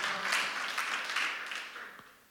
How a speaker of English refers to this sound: Come on, clap today.